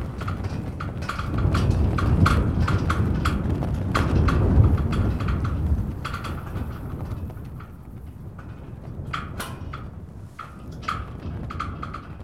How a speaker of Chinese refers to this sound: 大家现在听见的是，在冷湖镇政府前，五星红旗飘在旗杆上，因为 有风，旗杆的挂栓和旗杆之间摩擦出的金属的声音。